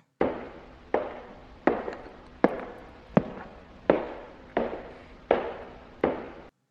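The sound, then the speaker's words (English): Slow, heavy footsteps, about nine in a steady even rhythm, each step a sharp thud with a short echoing tail, heard alone with no voices. “He didn't even hear the footsteps of his third visitor.”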